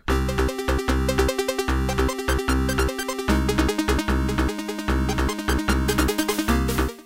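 Busy, upbeat video game soundtrack music plays loudly and continuously, with a driving, steady beat, punchy bass and dense layered melodic lines. No voices are heard.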